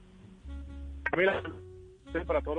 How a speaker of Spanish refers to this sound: Pues oyéndolo regular, regular tirando a mal porque debe estar usted en su celular y debe tener pésima señal.